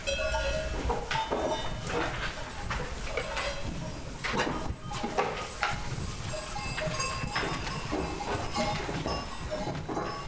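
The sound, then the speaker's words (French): A herd of goats bleating over one another, with small bells clinking and jangling steadily throughout as the animals move around. “J'en ai toujours aujourd'hui de ces chèvres-là.”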